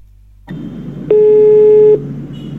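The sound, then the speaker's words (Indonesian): A single steady telephone tone from a call coming in to HMS FM radio sounds for just under a second, loud and clear over a low background hum and line noise, with no voices. “Nah, ini ada suara telepon nih.”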